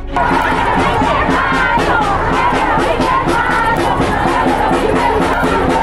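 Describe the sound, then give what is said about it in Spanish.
A large protest crowd at an International Women's Day march chanting and shouting together, a loud, dense wall of many voices that holds steady throughout with no single speaker standing out. “Manifestaciones por el Día Internacional de la Mujer.”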